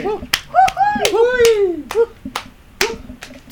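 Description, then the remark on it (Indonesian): Several sharp hand claps ring out at uneven intervals, loud, while excited voices whoop and talk over them in a lively, cheering welcome for a special guest. “terus ada tamu spesial nih men nih tepuk tangan ini dong tamu spesial nih”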